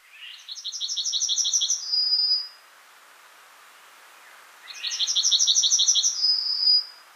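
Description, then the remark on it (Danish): A chaffinch sings two bright, rapid phrases, each a quick accelerating series of high trilled notes ending in a flourish, separated by a short pause. Clear, with no other sounds. “Det rene pip! Fuglestemmer #1”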